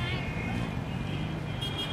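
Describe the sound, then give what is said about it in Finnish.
Steady, dense roar of city street traffic in Mumbai, with engines rumbling low and a constant wash of road noise filling the background, plus faint murmuring voices mixed into the din. “Liikenneruuhkia, ilmansaasteita ja melua”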